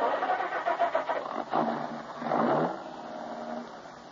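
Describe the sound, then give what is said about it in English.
A car engine cranks with a quick rhythmic whirring for about a second and a half, catches, and settles into a steady idle, clear with no talking. “I glanced at her closely for a moment, then started the car.”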